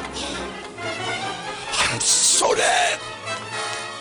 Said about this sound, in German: So diese Musik, wie, wie im Comic